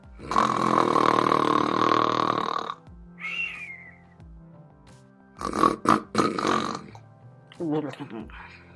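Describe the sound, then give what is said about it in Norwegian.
A voice imitates loud snoring: one long, rough, rasping snore, followed after a pause by a few shorter, choppy snorts and grunts. “De fleste snorker, men noen snorker veldig mye.”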